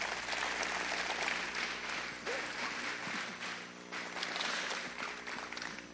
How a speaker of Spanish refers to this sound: Dar un aplauso fuerte al Señor.